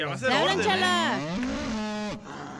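A cow lets out one long, loud moo, its pitch bending up and then sliding down before it trails off, with no other sounds around it.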